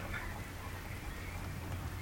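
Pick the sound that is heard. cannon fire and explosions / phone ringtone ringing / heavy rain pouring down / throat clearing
heavy rain pouring down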